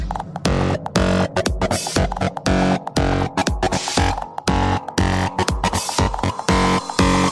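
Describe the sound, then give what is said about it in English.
Loud, dense electronic music saturated with gritty, heavy distortion, pulsing in choppy rhythmic bursts with thick buzzing low end and harsh fizzing highs, no voices. “Okay, now we need some fat distortion.”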